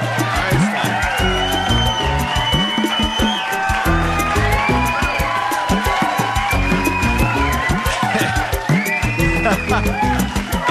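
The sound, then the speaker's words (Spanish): A red-haired boy shouts and whoops loudly on a Friday, his voice rising and falling in excited bursts over a steady background of other voices and crowd noise. “Ese, ese chico, amigos, que grita así.”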